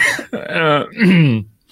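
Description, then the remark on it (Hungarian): Loud coughing and throat clearing in two or three rough, voiced bursts over under two seconds, with a short pause before a faint final sound. “van ilyen köhögés kapcsoló né- némelyik stúdióban, nálunk nincsen.”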